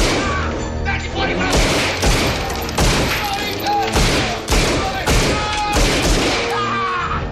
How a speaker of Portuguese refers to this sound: Cenas clássicas sucedem-se a cenas clássicas, McLean nas condutas do ar-condicionado, McLean a tentar safar-se debaixo de uma série de mesas aos tiros do bandido que caminha sobre elas.